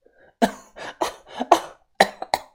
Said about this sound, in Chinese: 鸳鸯走后，阿元一连的咳嗽了好几声，